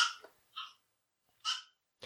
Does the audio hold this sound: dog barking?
yes